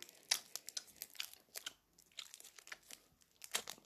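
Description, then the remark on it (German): Crinkling of a Galaxy chocolate bar wrapper as it is opened: a quick, irregular run of crisp, crackly rustles and snaps, some sharper bursts standing out, with no talking. “Ich muss versuchen, irgendwie aufzumachen, damit ihr noch, nachher noch die Verpackung sieht.”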